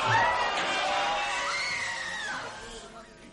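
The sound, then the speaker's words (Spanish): A crowd of people shouting and screaming together in the street as they run in all directions, many overlapping cries blending into a continuous uproar that gradually fades toward the end. “Como gritan en la calle. Y corren en todas las direcciones.”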